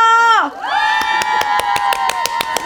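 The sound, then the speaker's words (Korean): A studio audience at an open studio screams and cheers in high, sustained shrieks that dip briefly and then swell again, while rhythmic clapping beats steadily underneath. “오픈 스튜디오 마이크 좀 열어봐요. 여러분 소리 질러!”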